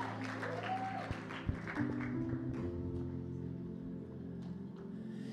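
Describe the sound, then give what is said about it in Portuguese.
An audience applauds steadily for several seconds, a dense crackle of many hands clapping at an even loudness, with a low sustained tone humming underneath. “Vamos aplaudir a vida”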